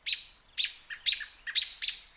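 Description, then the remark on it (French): A blackbird calls with a series of sharp, bright chirps, about six in quick succession at a steady rhythm, clear with no voices around it. “Cependant, un merle blanc qui se tenait perché sur la haie qui longeait la route fit entendre son cri habituel”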